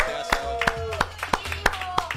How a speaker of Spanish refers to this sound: Un aplauso